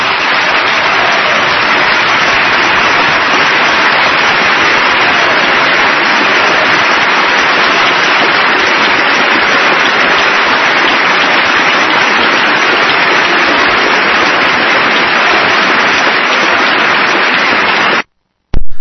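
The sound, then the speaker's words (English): An audience in a recorded speech applauds after the speaker praises Dikembe Mutombo as a citizen of the United States, a dense, steady roar of clapping that holds at an even, loud level for about eighteen seconds before cutting off abruptly. No one speaks. “Well, I doubt many out there were clapping.”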